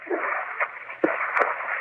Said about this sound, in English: Why, lady, are you hissing the picture? No, I'm frying an egg.